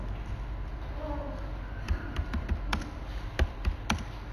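Several sharp computer mouse clicks arrive in an irregular run over the second half, each a crisp little tick above a quiet low hum, with no one talking.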